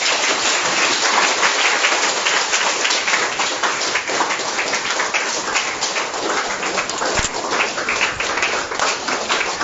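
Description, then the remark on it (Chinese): Loud, sustained applause from a large crowd, a dense crackle of many hands clapping that stays steady and full for the whole stretch with no voices standing out. “好，掌声再热烈一点。”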